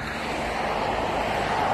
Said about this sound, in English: Anyway, you can hear the traffic, so I'm here at the bus stop.